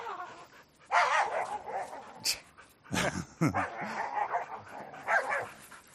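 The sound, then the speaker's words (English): Dogs, including one named Missy, bark, yip and snarl in rough, overlapping bursts as they play-fight, with a brief human laugh mixed in. “it sounds like uh, they are really tearing each other up over there, but they're really how, not.”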